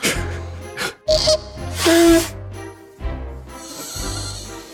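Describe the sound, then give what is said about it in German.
Short, thin squeaks whistle through the nose amid snorting, breathy bursts, with a low steady hum underneath; the squeals come in two brief spurts, fairly loud. “Widerlicher Quietschlaut aus der Nase noch.”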